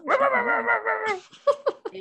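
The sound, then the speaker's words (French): A dog lets out a long, drawn-out whining howl, then gives several short, sharp barks and yips in quick succession, fairly loud. “Bien le chien, sympa.”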